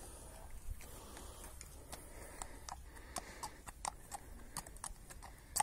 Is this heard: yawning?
no